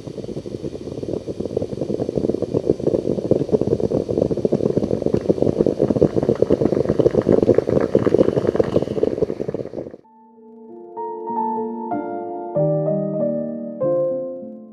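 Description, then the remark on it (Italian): A moka pot gurgles and sputters steadily for about ten seconds, a dense bubbling hiss, then it stops and a soft melodic tune of sustained tones takes over. “prima di continuare e lasciarvi il tempo di pensare ma cosa diavolo sarà questo rumore, questo gorgoglio che abbiamo appena ascoltato”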